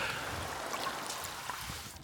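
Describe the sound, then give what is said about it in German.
Soft, steady water sounds with gentle lapping and faint trickles, like small waves against a boat or shore, continuous and fairly quiet with no voices. “Also die Wellen und die Schwämme sollen hörbar bleiben.”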